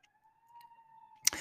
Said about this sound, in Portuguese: Não podia, eles não podiam, olha que chato. Eles não podiam fazer um som que assim só o, os carros da frente que ouve, não eu não preciso ouvir uma ambulância que tá a seis quarteirões de mim, cara.